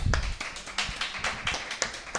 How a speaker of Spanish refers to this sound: Si todavía no ha contestado, ¿por qué aplaudís? ¿Puede fallar? Porque les mola el nombre.